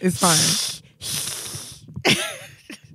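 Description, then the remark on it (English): A person imitates a cat's hiss with two long, harsh, breathy bursts, the first starting with a throaty edge, followed by a short spoken remark. “That was me. hissing like a cat.”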